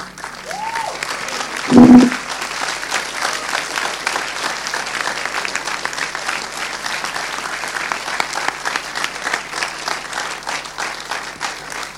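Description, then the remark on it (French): Sustained audience applause after a film screening, a dense steady patter of many hands clapping at an even loudness throughout, with a brief louder thump near the start and no talking. “Voilà, à vos applaudissements, on voit que le, le film vous a plu.”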